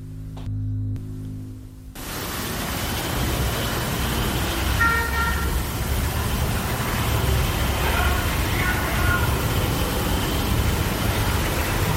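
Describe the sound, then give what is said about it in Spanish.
A brief horn-like beep rises out of steady hissing static in a psychophony recording captured in complete silence, followed later by a second, similar short tone, both fairly faint against the constant noise floor. “Y es que eh, la psicofonía es, es, captada en completo silencio y de repente surge una especie de pitido, como una bocina, surge de la nada y después se produce una inclusión que nos dice valor y fuerza.”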